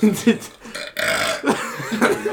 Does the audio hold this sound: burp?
yes